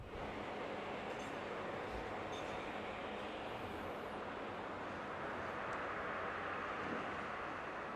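A steady, dense roar of an airplane engine fills the whole clip at constant loudness, broad and rushing with no pauses and no voices.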